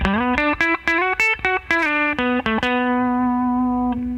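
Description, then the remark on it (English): Compressed electric guitar on the bridge pickup plays a quick phrase of about a dozen bright, punchy notes, then settles into one long, even, sustained note. No one speaks. “I have I have some compression on, so it's kind of the nuance is a little, it's a, it's a little nuance, but um, uh, yeah, it sounds good.”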